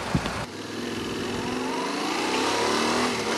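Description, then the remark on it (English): A 689cc CP2 parallel-twin motorcycle engine revs up, its steady growl climbing smoothly in pitch over a few seconds after a brief knock at the start, with no voices. “CP2 engine, full fat version, 689cc.”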